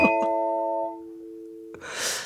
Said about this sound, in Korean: 사연을 보내주셨기 때문에 딩동댕 드릴게요.